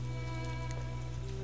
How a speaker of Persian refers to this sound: چقدر خوبه که داره بارون میاد همیشه دوست داشتم موقع تولد یا عروسیم بارون بباره تا بقیه بگن من چقدر خوشبختم الانم که داره بارون میاد من خیلی ذوق دارم